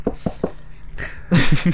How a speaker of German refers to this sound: Klopfen.